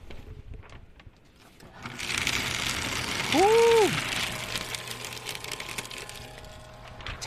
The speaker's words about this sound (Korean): 파쇄기 소리를 좀 실시간으로 듣고 싶은데